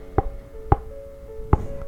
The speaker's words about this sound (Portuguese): Esse é o barulho da minha mandíbula escutando, estralando. Faz de novo, ó.